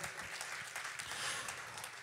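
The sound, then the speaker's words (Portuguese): An audience applauds the Lord together, a dense, steady wash of many hands clapping that holds at an even level for the full two seconds with no voices standing out. “Aplauda ao Senhor, pode se assentar por gentileza.”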